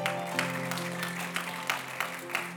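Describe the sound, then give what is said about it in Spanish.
A church audience applauds for Christ in a steady, dense patter of clapping, with a few sharper bursts, while sustained keyboard or organ chords hold underneath throughout. “Dele un aplauso a Cristo si todavía puede.”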